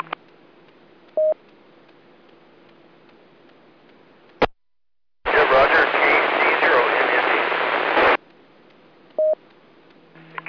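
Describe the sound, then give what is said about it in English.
Two short DTMF keypad tones, sent from the keypad on a radio microphone as Morse code, beep several seconds apart over steady radio hiss, broken by a sharp click, a moment of dead silence and a loud three-second rush of static. “Well, I was just using the um, the DTMF uh, tones, the keypad on the mic,”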